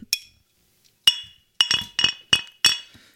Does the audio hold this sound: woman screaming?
no